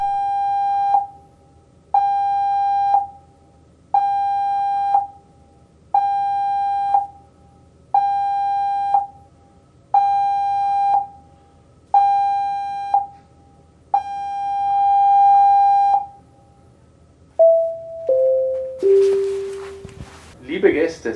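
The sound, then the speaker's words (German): A ship's general emergency alarm blares seven short, evenly spaced tones and then one long tone, loud and buzzy, followed by a brief descending chime, during a passenger safety briefing on life jackets. “haben gerade den allgemeinen Alarmton unseres Schiffes gehört.”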